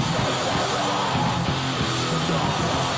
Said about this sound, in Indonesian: Lo-fi, death metal lo-fi. Death metal tapi lo-fi. Dengerin.